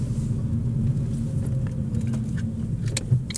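Steady low engine and road rumble from inside a car moving along a country road towards a bus stop, continuous and fairly loud, with faint rattles and ticks scattered on top and no voices.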